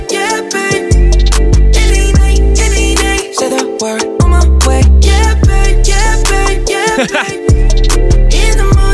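A loud, polished pop song plays throughout, with a deep pulsing bass line, steady beat and smooth melodic vocals riding over layered synths, no talking over it.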